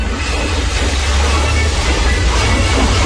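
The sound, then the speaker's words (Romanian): A steady, loud rush of splashing water from fountain jets pouring down continuously, with a deep rumbling undertone and no pauses, recorded on site at a fountain show with music. “Nu prea se aude bine că e multă apă.”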